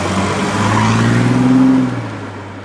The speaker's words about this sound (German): Aber in dem Moment springe ich ins Auto, starte den Motor.